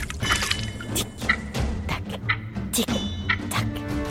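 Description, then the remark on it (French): Water splashes and sloshes in a series of sharp bursts over a steady, busy background as Captain Hook, fighting with his sword, loses his balance and falls into the water, churning the surface. “Crochet tenta alors de se défendre avec son épée, mais il perdit l'équilibre et tomba dans l'eau.”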